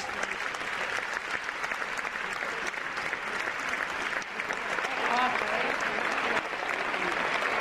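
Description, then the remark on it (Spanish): Steady, dense audience applause fills the whole stretch, a continuous wash of many hands clapping that swells slightly louder toward the end, with faint voices mixed in. “Máis aplausos.”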